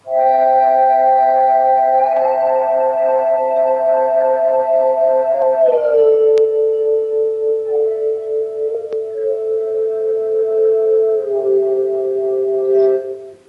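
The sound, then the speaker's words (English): A sustained chord played on the MorphWiz synth app holds steady, then glides down in pitch in a few smooth steps as a finger slides on the screen, the tones sliding together like a pedal steel. Loud and continuous, with no voices. “Like here's another chord, and I'll slide my finger so you can hear it move.”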